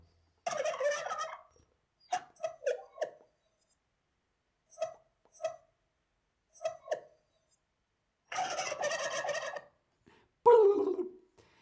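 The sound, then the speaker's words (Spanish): A turkey gobbles repeatedly, with long rattling bursts broken up by short clucking notes, loud, with no one talking. “Muy, muy bien, eso es un pavo.”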